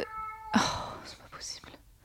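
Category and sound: animal, cat meowing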